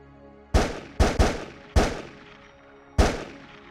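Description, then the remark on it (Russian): Five sharp gunshots ring out through a deserted city at uneven intervals, two in quick succession, each followed by a long reverberant echo that trails off as if bouncing between buildings. “Вскоре по безлюдному городу разлетелись звуки выстрелов”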